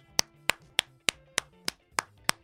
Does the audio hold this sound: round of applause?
yes